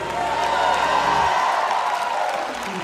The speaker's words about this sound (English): If you're a part of that army, let Jesus hear your hand clap. Somebody let out a shout of victory.